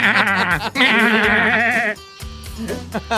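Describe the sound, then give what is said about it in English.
A goat bleats loudly in two long, quavering cries, the second drawn out for over a second, followed by quieter muffled sounds. “get goats to eat down and make you a fire break”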